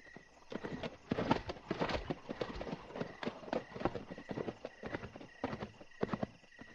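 horse hooves clip-clopping

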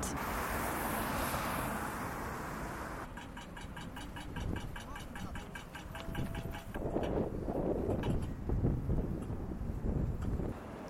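city traffic noise

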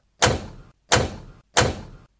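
car door slammed shut

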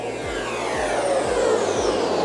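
electric car driving

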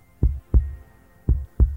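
pounding heartbeat sound effect

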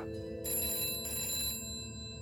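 telephone bell ringing

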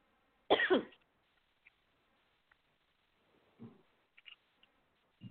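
coughing

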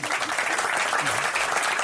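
audience applause

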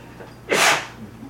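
sneeze

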